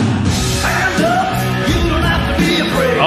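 A loud hard rock song plays, with a chorus of voices shouting the vocal line over a dense, driving band, the shouts swelling and repeating throughout.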